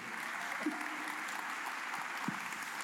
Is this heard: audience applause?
yes